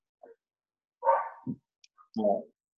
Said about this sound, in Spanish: Eh, son los perros del vecindario y eh, que se conocen y se escuchan y se responden. Están debatiendo quién es el nuevo presidente de los perros.